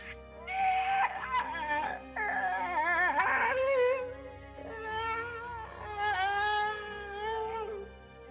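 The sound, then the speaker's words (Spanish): Long, wavering howls rise and fall in a few drawn-out bursts with brief gaps between them, fairly strong, with a whimpering, dog-like quality and no talking. “un aullido muy, muy fuerte.”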